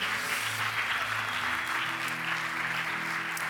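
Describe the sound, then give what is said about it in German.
An audience claps steadily throughout, a dense, sustained wash of many hands with no pauses, loud and continuous, with faint tonal hum beneath and no one speaking over it. “Hey, können wir mal den Leuten nochmal einen großen Applaus geben?”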